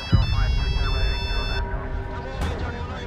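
A Nokia 3210 mobile phone, one of several old mobile phones glued into the lid of a suitcase lying on a table, rings with a bright, electronic monophonic melody of short repeated notes, then stops after about a second and a half, leaving murmuring background noise.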